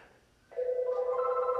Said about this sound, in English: so, oh, there's a phone ringing here. So, oh, we got our first caller.